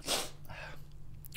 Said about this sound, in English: Ah, oh no, here comes the sniffles.